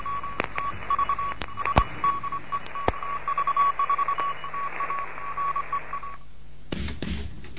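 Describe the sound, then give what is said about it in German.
A steady, mid-pitched Morse code tone from a Morse lesson for beginners broadcast from Bremen keys out a rapid run of dots and dashes over faint radio hiss, then cuts off, leaving a brief burst of static. “Hier ist Digot 1 Kilo November in Bremen mit einem Morseunterricht für Anfänger.”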